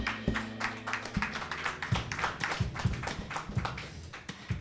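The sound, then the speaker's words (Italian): Light, scattered applause from an audience at an event broadcast on radio, following a song: a thin, timid patter of claps that stays fairly soft and steady throughout, with no one speaking. “questo era il timido applauso del volume, secondo me potremmo fare un po' meglio, dai.”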